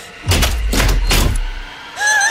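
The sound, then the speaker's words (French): A door lock unlocks with three heavy mechanical clunks and rattles in quick succession, followed by a brief high electronic tone at the end. No one speaks. “Porte déverrouillée.”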